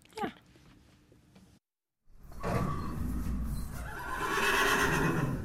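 After a brief soft knock and a moment of silence, a horse lets out a loud whinny that rises and trembles for several seconds.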